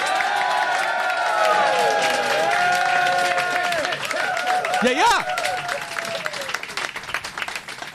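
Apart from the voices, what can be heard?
audience cheering and applauding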